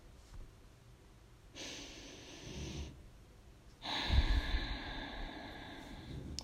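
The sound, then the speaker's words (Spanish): Two slow, deep breaths in and out, each a broad airy rush lasting over a second, with a quiet pause between them; fairly soft, with no talking. “Inhalamos y exhalamos. Tomamos tres respiraciones profundas.”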